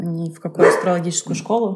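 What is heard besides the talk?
dog barking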